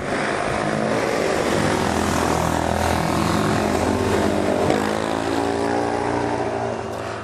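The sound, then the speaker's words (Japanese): A supermoto motorcycle engine passes by, droning loudly, its buzzing harmonic whine holding steady for several seconds before easing off slightly at the end, with no voices. “モタードが人気なのはバンコク共通ですね”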